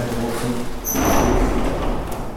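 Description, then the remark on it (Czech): An original, preserved glazed sliding door in an apartment rolls along its track with a steady rumbling scrape and a brief high squeal partway through, with no voices. “dodnes vlastně dochovaných a posuvných dveří. Posuvných, dveří, které se dají vlastně navíc ještě prosklený”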